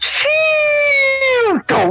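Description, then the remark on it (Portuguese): A voice imitates a whistling firework of the kind set off in Brazil: a long, steady, high whistle that dips sharply in pitch near the end, followed by a short, breathy burst like a pop. Loud. “aqui no Natal tem fogos”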